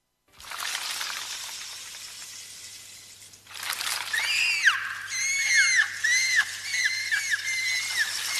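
Seabirds screech in a rapid chorus of shrill, rising and falling cries over a steady hiss, growing busier and louder after the first few seconds, with no talking.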